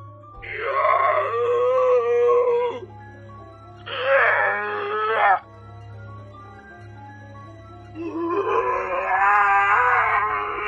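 Three loud, drawn-out howling wails from someone, howling in fear, one after another with short pauses between, each rising and wavering in pitch like an anguished moan over a low steady hum.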